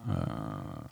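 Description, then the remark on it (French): Poupy, a pet, lets out a drawn-out, vocal yawn lasting about a second, a low, slightly whiny voiced tone that sags in pitch. It is fairly loud, with no talking over it. “Ce que vous avez entendu, c'est Poupy qui a baillé.”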